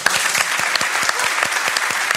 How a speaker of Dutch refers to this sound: Applaus voor Lisbeth.